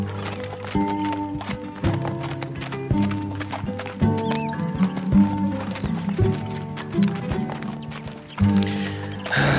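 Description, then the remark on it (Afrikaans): The hooves of saddled horses being ridden clip-clop steadily for the whole stretch, a brisk, uneven patter of hard knocks over a sustained tonal hum in the background. “Kom ons stop hier en saal af sodat ons kan begin.”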